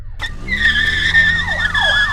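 A police car skids into a drift, its tires letting out a loud, sustained high-pitched screech that wavers and dips in pitch over about two seconds, with engine rumble underneath and no voices.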